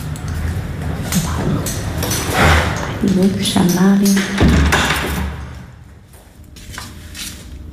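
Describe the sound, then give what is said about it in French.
Cutlery (forks and knives) clinks and clatters against dishes in a few sharp knocks at a meal of chicken and saka saka, with a voice talking briefly in the middle before the handling sounds fade. “les couverts.”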